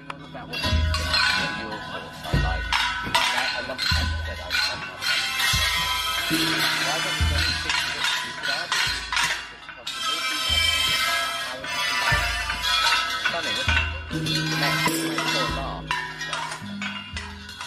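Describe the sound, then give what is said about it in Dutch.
Loud, busy live music from a Thai orchestra of elephants playing instruments: clanging bells and struck metal percussion over sustained droning tones, with irregular hits and no steady rhythm, playing continuously throughout. “Je luistert namelijk naar het enige Thaise olifantenorkest.”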